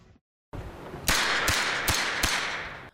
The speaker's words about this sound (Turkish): Şimdi e, Taksim'e gideceğiz. Dün ve e, akşamüstü saatlerine yani trafiğin de insan kalabalığının da yoğun olduğu saatlere götüreceğiz. Orada yükselen silah sesleri.